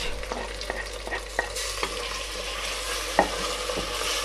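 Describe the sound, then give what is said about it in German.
Onions sizzle steadily in olive oil in a pan as they are sweated, a broad hiss that brightens partway through, punctuated by several sharp scraping clicks of a spoon stirring against the metal. No one speaks. “So, Zwiebeln sind angeschwitzt.”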